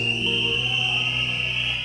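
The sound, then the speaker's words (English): A loud, shrill whistle blown in one long, steady blast that holds for about two seconds, with no talking over it. “That's why I like whistle sometimes”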